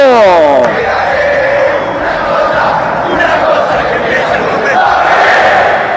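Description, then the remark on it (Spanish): A stadium crowd stands and roars loudly after Aaron Quirós heads in a goal to give Banfield the lead, a dense, sustained wall of voices that holds steady for the whole stretch, with a single falling shout at the start. “28 lo celebra todo el estadio. Se pone de pie todo el público y el aliento crece.”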